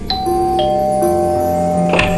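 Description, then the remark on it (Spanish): A doorbell chimes: a short run of clear, ringing tones struck one after another, each note lingering and overlapping the next, fairly loud with no voices. “De repente sonó el timbre.”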